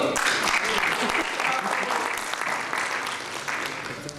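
An audience claps steadily for a participant after a demonstration, a dense, sustained patter of many hands that stays loud before easing off slightly toward the end.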